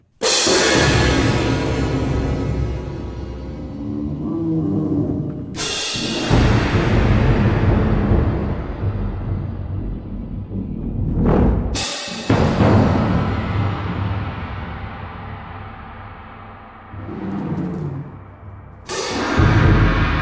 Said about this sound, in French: petit collage de Lion's Roar dans le tout début d'Hyperprisme d'Edgar Varese, où l'on entend l'instrument isolément